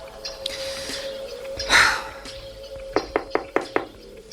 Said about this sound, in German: an die Tür von Inspektor Cotter klopfte